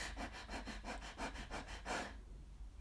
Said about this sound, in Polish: Więc y, tu mogę Ci porównać na przykład y, to, jak, jak y, nieraz my niestety oddychamy, czy oddychamy bardzo szybko, e, nie zwracając uwagi na to, co się dzieje, robimy szybciutki oddech.